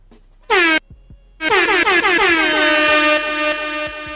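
A loud, brassy air horn gives a short blast, pauses briefly, then sounds a long sustained blare lasting several seconds, piercing with no voices.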